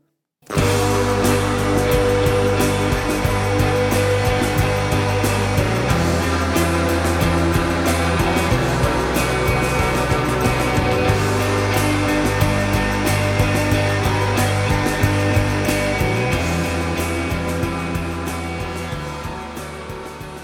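A dense shoegaze song plays without any talking: a wall of hazy, distorted guitars over steady bass notes that shift every few seconds, with a constant shimmer of cymbals, slowly fading toward the end.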